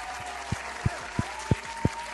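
A single pair of hands claps steadily and evenly, about six or seven loud, close-up claps in quick succession, each a sharp thump right against the microphone, with no voices.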